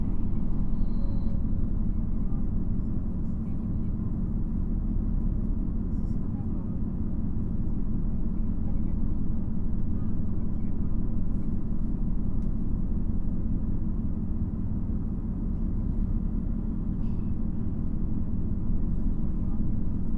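A steady, loud low rumble inside a JR Shikoku 2700 series diesel railcar on the Nanpu No. 20 limited express from Kotohira to Okayama, with a constant droning engine tone and faint clatter running unbroken for the whole stretch, with no one speaking.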